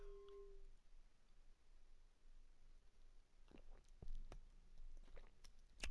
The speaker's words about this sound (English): it's the um, Shiraz I'm drinking. And in fact, before I pronounce any judgment on it, let me just have a little sip.